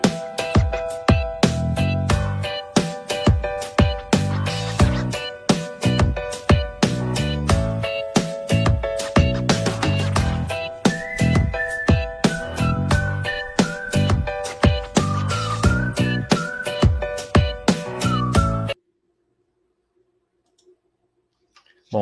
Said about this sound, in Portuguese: E logo no nosso primeiro episódio, vamos colocar nossa vinhetinha, porque a gente já tem uma vinhetinha.